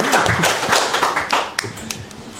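A burst of audience applause, many hands clapping together in a dense, crackling patter that holds steady for a couple of seconds, with faint voices mixed in.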